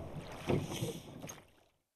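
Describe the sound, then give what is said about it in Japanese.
Splashy water sounds from a small rowboat being rowed by two men on Shinobazu Pond in Ueno Park, Tokyo, in the late-afternoon sun, with a couple of oar strokes churning the surface amid light wind noise, then fading to quiet. “西日差す忍ばずの池をね、僕らこうやってボートこいでるから。”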